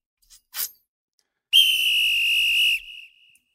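A loud, shrill whistle blast held steadily for over a second, then tapering into a faint trailing tone, preceded by a brief soft puff of air. No one speaks.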